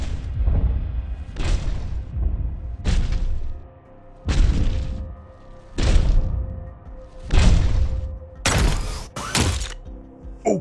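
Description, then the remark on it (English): Heavy, booming stomps of the giant robot Mega Lord, with the Noir Ranger in the cockpit, land one after another in a slow, steady rhythm, each a deep thud with a rumbling tail, the last few ringing with a sharper metallic clank. No voices. “Then, suddenly the Mega Lord came stomping with the Noir Ranger in the cockpit.”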